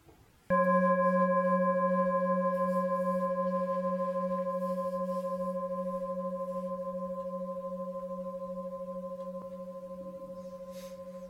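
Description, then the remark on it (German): A singing bowl is struck once and rings on with a warm, steady hum and layered bright overtones, fading only slowly over about ten seconds, with no voices. “und der Klang der Schale.”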